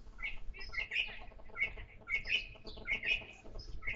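Birds chirp and sing outdoors at a country dacha in a steady stream of short, bright calls, several overlapping at moderate volume over a faint low background rumble. No one speaks.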